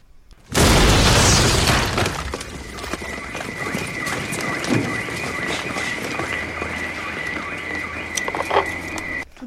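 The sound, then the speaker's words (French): A sudden loud explosion bursts out and rumbles away over a second or two, then a steady high-pitched alarm tone sounds continuously until the end, with clattering noise underneath. “une explosion et une alarme retentit.”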